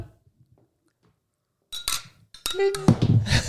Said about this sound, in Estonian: ja sinna kukkus mu telefon.